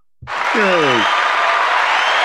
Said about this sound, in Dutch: Applaus voor Seppi. Applaus voor Seppi.